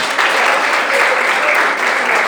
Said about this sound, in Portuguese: Pode aplaudir o Senhor.